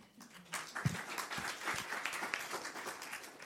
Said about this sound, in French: On va déjà vous applaudir quand même.